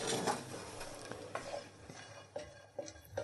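Nuts toasting in a hot, dry pan without oil, with a steady dry crackle and scraping under several sharp clicks and rattles as they are stirred and shuffled around. Fairly quiet, no voices.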